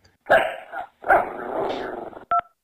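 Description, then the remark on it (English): A female German Shepherd lets out two loud barks, the second one drawn out into a rough, growly howl, followed by a short double electronic beep. “Yeah, I have a female dog, German Shepherd.”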